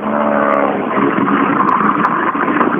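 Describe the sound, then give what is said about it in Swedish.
The engine of a car that is acting up runs with a loud, steady, rough roar throughout, a strained humming tone in the first second giving way to a ragged, uneven rumble. No one speaks. “Ja, hennes bil strular.”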